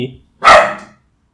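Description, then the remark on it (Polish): A single loud bark from an agitated pet dog named Kapi rings out and trails off, following a brief fragment of a person's voice at the start. “No, kończymy, bo mi się pies denerwuje, muszę z nim chyba go wyprowadzić.”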